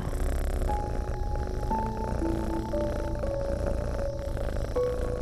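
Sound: cat purring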